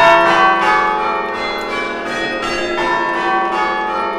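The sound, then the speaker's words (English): Church bells are rung backwards as an emergency alarm, ringing out in a steady succession of strikes, each new peal landing over the lingering hum of the last, loud, with no voices. “the bells traditionally would send out messages that if you were under attack uh, mm-hmm.”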